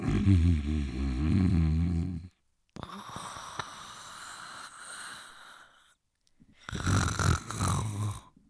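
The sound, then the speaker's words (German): Loud snoring of a sleeping person in three drawn-out breaths: a rumbling, rattling inhale, a long hissing exhale with a brief silence before it, then another harsh, buzzing snore. “Ihr hört eine Original-Schlafaufnahme von …. Ah, ich höre mich an wie Darth Vader oder so.”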